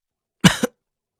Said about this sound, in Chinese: 啊，怎么咳嗽了？呛着了？